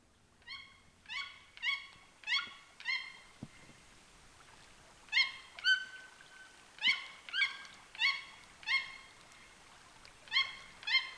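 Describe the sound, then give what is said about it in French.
Toucans with black plumage, white throats and large red beaks, perched on a branch by a bank in the flooded Amazon forest of Petit Saut lake on a sunny late afternoon, call in a steady series of loud, nasal yelping notes: a run of five, a short pause, then another rhythmic run, with no voices and only quiet background. “Le chant des toucans”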